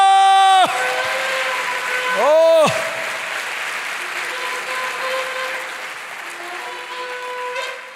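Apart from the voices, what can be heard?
audience applauding loudly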